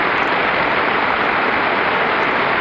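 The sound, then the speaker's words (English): A steady, dense wash of applause in Congress during President Lyndon Baines Johnson's address to Congress, many hands clapping at once into an even roar that holds at full strength for the whole stretch, with no voices heard. “And this, that line gets just, you know, a huge applause. This is Congress.”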